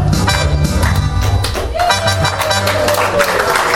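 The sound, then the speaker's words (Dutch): A loud, steady burst of audience applause after a sung song with keyboard accompaniment fills the whole stretch, dense clapping from a crowd with some murmur and lingering tones underneath. “Applaus”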